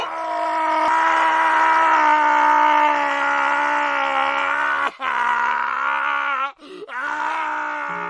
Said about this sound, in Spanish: Esa es la razón de los gritos que se escuchan en la habitación 407 del Hospital Psiquiátrico de Villaverde, donde aguarda un hombre que de niño hizo un acto atroz y no se le dejó salir nunca más